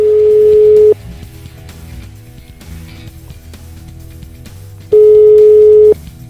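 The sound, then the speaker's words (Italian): A telephone ringback tone on an outgoing call from a radio show to Professor Simone Bondio: two steady, mid-pitched one-second beeps separated by about four seconds of quiet line, with faint low background hum. “Io vorrei chiamarlo per farmi dire da lui se ha gradito il titolo di questa intervista.”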